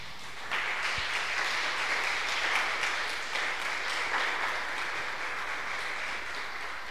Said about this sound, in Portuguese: Você pode aplaudir ao Senhor por isso?